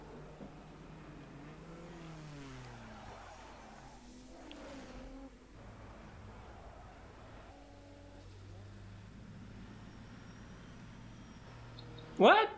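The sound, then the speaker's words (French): Powerful, big race car engines roar and rev, their pitch climbing and dropping as the cars pass, ending in a sudden sharp, loud burst. “C'est des gros moteurs.”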